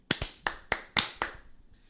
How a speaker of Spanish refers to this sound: Ahora un aplauso corto para la, moderación de este cabrón.